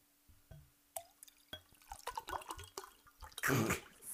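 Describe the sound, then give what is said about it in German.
Tonic water being poured into a glass for a gin and tonic: scattered drips and splashes and clinks, then a louder fizzing, gurgling rush of liquid near the end. No one speaks. “Gin Tonic, pass auf.”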